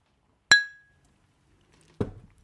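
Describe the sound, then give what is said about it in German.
A single bright clink of glasses touching in a birthday toast, ringing out briefly and fading, followed a moment later by a duller knock and rustle of handling. “sollen wir mal kurz so anstoßen vielleicht?”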